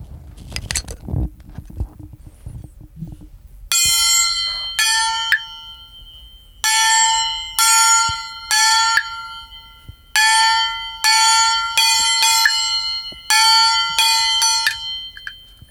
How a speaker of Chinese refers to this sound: 好，我们要不要听一下？ 听那个叫锣是吗？ 对 叫锣。